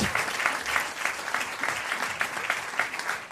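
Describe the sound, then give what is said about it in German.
An audience applauds steadily, a dense, continuous patter of many hands clapping at an even level for a few seconds with no talking over it. “Ein Applaus für dich”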